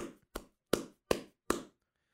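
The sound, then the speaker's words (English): Five cupped-hand claps in a steady rhythm, each a deep, hollow, bass-heavy pop with little sharp high end, with no voices. “but hand fingers against palm bit more bit more mid not as much high and then like the cup hands is just all bass.”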